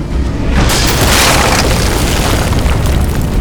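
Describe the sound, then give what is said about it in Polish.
A loud explosion bursts out with a heavy boom, then gives way to a long, continuous rumble and crash as tons of rubble and earth collapse, filling the rest of the moment. “oślepił ich krótkotrwały blask eksplozji, a niemal w tej samej chwili wszystko się zawaliło.”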